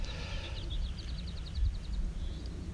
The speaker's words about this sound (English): but um, it's beautiful and uh, you can hear the birds.